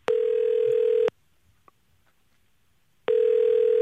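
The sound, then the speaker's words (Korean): A telephone tone during a call placed live on a radio broadcast to a listener: a steady, mid-pitched electronic tone sounds for about a second, drops to near silence for two seconds, then starts again. No one speaks. “한번 전화 한번 걸어보겠습니다.”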